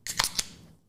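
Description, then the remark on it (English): A beer being cracked open: a few sharp metallic clicks in quick succession, then a short hiss of fizz that fades away. No one speaks. “That is the sound of a hard earned beer at the end of the week.”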